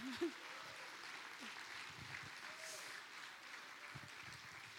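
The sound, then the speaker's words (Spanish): An audience applauds for God steadily, a dense, even wash of clapping that holds for several seconds, with a few faint voices rising briefly beneath it. “Démosle un aplauso, 10 para Dios.”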